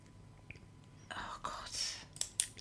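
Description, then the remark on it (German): A ballpoint pen clicks a couple of times near the end, short sharp snaps, after quiet breathy rustling and whisper-like noise. “Hör mal auf mit dem Kugelschreiber.”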